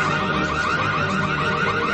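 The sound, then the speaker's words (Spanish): A home security alarm blares continuously, its loud electronic tone warbling in a fast, steady repeating cycle, unbroken with no voices, as a woman approaches the alarm screen. “La mujer se acerca a la pantalla de la alarma.”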